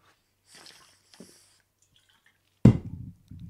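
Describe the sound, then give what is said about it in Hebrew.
Someone drinks water: soft slurping sips and breaths, then a sudden louder gulp or knock of a cup, followed by low wet swallowing sounds, with no talking. “אני חייב שנייה מים, רגע.”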